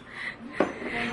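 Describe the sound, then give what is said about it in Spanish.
Busy bar ambience with a steady murmur of background chatter and a single sharp clink of dishes partway through, moderately loud. “Y hoy estuve platicando en este bar que no les vamos a decir cuál es.”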